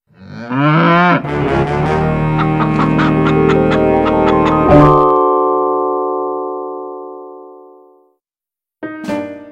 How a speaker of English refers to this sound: In the background, he heard the cows busy at work. Click, clack, moo. Click, clack, moo. Clickety-clack, moo.